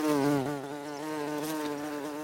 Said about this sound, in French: Les bourdons, ces grosses abeilles velues, sonores, effrayantes mais pacifiques et que nous connaissons tous, sont d'abord solitaires.